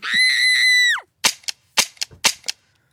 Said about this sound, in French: Alors, Bonne ou mauvaise arme à feu Bah, elle s'est enrayée là. Bah mais alors bonne ou mauvaise arme à feu Bah, mauvaise si elle s'enraye. elle Mauvaise arme à feu, oui hein. On a entendu clairement un danger, le cri, et l'arme à feu s'est enrayée